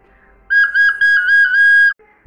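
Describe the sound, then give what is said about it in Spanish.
A single high flute note held for about a second and a half, loud, with a slight waver in pitch, then cut off. No voices. “Cuando se acercaban, había una flauta sobre el tronco.”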